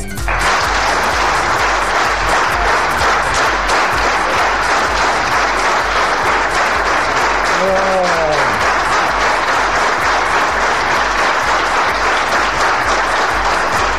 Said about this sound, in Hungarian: Kérem önöket, ha már eddig soha nem tapsolták meg, legalább most az egyszer, utoljára köszöntsék a hírt, Vastapsal!